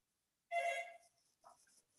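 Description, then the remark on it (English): A telephone rings once in a short, bright electronic burst, followed by a few softer chirps. It sounds faint, with no voices. “Sorry, another phone.”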